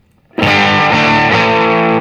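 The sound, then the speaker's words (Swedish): A thick, fuzzy overdriven guitar tone from an effect sound called Fuzzy Overdrive rings out loud and sustained for about a second and a half, dense with buzzing harmonics, then cuts off abruptly. No voices. “Okej, okay, vi kör sista ljudet här som heter Fuzzy Overdrive.”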